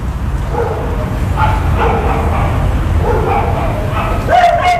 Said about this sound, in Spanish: Que un paisaje, o sea, el- los perros le dan como esa, esa, ese toque de paisaje desolado, es como solo quedan los perros, ¿no?